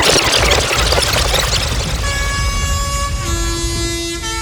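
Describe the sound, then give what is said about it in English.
A sound system's dubplate mix: dense, loud music with heavy bass gives way to blaring sustained air horn blasts, layered tones stacking and holding over the beat near the end. “Alle drei Sounds haben ihren Dubplate-Mix äh, hier zur Verfügung gestellt.”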